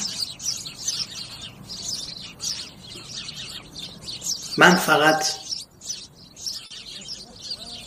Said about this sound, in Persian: بسیار خوب با اعلام من روز میشه و شهر بیدار خب تا گنجشکا جیک جیک میکنن